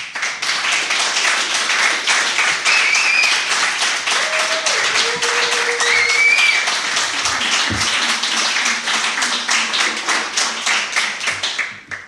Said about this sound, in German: Jetzt nochmal klatschen, oder Jetzt könnt ihr noch einmal klatschen, bitte.